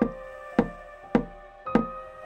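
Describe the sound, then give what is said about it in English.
Four firm knocks on a door, evenly spaced about half a second apart, clear with a short resonant thud on each. No voices. “on the door.”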